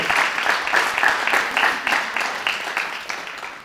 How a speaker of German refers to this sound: Also wenn, ich, wenn ihr klatscht, dann bleibe ich hier. So ist es nicht.